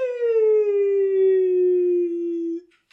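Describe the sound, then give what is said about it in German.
A single long wolf howl, loud, holding a steady tone that sinks slowly in pitch for a few seconds before breaking off, followed by a brief faint rustle. “Das sind Wölfe.”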